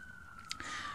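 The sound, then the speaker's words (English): A faint siren holds a steady high wail through the whole second in the background of a recording, with a couple of brief clicks and a rising hiss toward the end. Nobody speaks. “Excuse the sirens in the background, I'm recording in a different location today.”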